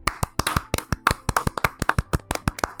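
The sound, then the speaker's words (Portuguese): A short round of applause for Ricardo, who listens at the gym: quick, sharp hand claps at a brisk, fairly even pace, loud, with no one talking over them. “Então, é, uma salva de palmas pro Ricardo que escuta a gente na academia.”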